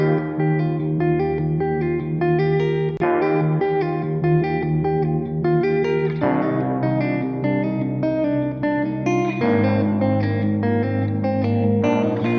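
A full, steady stretch of pop music played on the radio, with sustained harmonic chords and a driving beat, loud and continuous throughout, with effects-laden guitar or synth tones and no speech.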